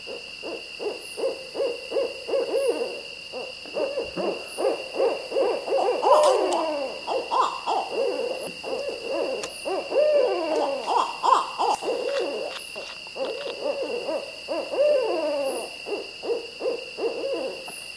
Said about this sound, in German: jetzt viel Spaß beim Streifenkauz. Wir hören mal gemeinsam rein.